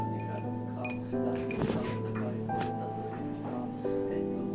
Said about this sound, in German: Jetzt kommt Orange. Orangensalbe. Das hört sich ganz zärtlich an. Wachs und Olivenöl gemischt, in ein Glas getropft.